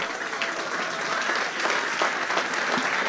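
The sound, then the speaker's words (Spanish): A room full of people claps steadily, a dense, continuous patter of many hands that stays fairly loud and even throughout, with no talking over it. “No sé, si usted va a aplaudir.”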